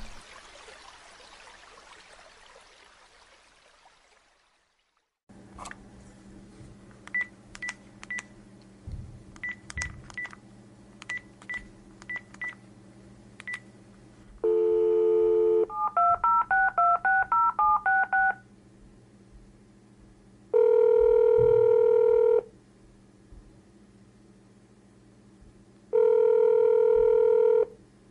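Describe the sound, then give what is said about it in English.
A phone call to a sheriff: a burst of static gives way to a low hum and clicking, then a tone and a quick run of dialing beeps, followed by two long, evenly spaced ringback tones going unanswered. No one speaks. “I bet they just aren't answering because they recognize my number.”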